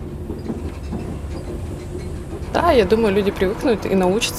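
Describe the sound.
Steady low rumble of a train rolling along rails, heard from a compartment on a journey to Ukraine, with faint, irregular clacks underneath; partway through, a person begins talking over the continuous rolling noise.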